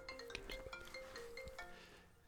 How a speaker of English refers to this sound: so anyway, that was uh, my phone. So we got another interruption.